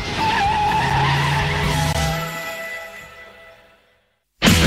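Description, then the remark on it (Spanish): A car's engine roars as its tires screech in a long, loud skid that fades away over several seconds, followed by a sudden sharp burst of noise at the very end. “Este coche tira bien.”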